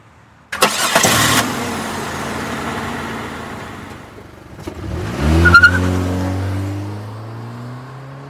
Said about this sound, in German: dann geht die Autotür auf und dann wird das Fahrzeug gestartet